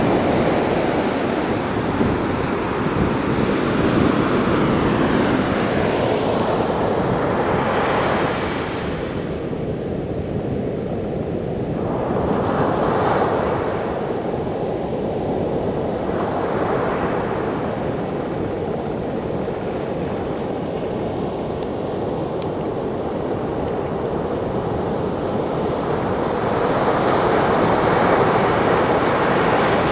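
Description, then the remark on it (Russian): Atlantic Ocean waves crash and roar onto the shore, a continuous loud wash of surf with surges rising and falling every few seconds, plus some wind rumble on the microphone; recorded while walking up close to the water's edge. “Я надеюсь, вы уже слышите шум волн.”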